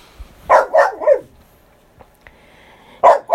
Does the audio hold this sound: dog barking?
yes